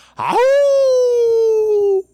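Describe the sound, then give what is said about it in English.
A person does a single sustained howl in imitation of a wolf for the Nevada Wolf Pack team, sliding up at the start and then holding a long, slowly falling tone for nearly two seconds, loud. “I don't have a wolf. Like a howl.”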